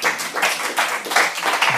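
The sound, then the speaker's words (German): An audience at the final round of Palaver 2019 applauds warmly for a Swiss jazz educator being introduced, a steady wash of many hands clapping at once, dense and bright, holding an even level throughout with no voices on top. “Ich darf ihn kurz vorstellen, aber zuerst einmal einen warmen Applaus.”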